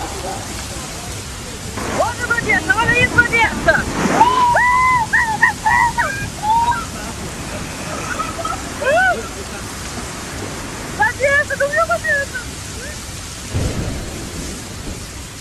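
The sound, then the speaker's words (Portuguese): Heavy rain and rushing floodwater from a storm in the city of Petrópolis, Rio de Janeiro, roar steadily throughout, with low thunder-like rumbles breaking through at moments and agitated voices calling out in short bursts over the storm. “Como eu vinha dizendo, ainda nessa terça, um temporal atingiu em cheio a cidade de Petrópolis, no Rio de Janeiro.”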